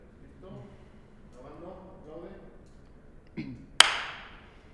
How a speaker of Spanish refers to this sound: Listo, vamos a empezar a grabar y vas a aplaudir. Y de ahí partes.